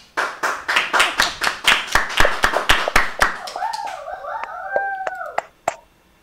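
Audience applause: loud, steady rhythmic clapping in unison that tapers off after a few seconds, followed by a few scattered claps and some high, wavering whoops or howl-like cries.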